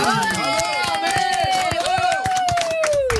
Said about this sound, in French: Mesdames et messieurs, applaudissements pour la seule, la grande Armel Lévy.